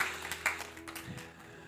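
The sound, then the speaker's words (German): A short burst of audience applause for a mother: scattered, irregular hand claps from a small group, fairly soft, with no one talking over them. “danke Mama, danke, herzlichen Applaus, schön, dass du da warst.”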